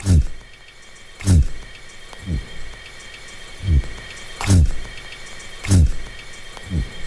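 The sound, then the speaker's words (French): Repeated low, tonal buzzing bursts from a crustacean vibrating its shell underwater, made by a muscle inside the carapace at the base of the antennae contracting rapidly; about seven short throaty pulses spaced irregularly, some with sharp clicks, over a faint watery background hiss. “ce bourdonnement, c'est un peu euh, un, son vraiment très basse fréquence, très tonal, euh, un peu un bruit de gorge.”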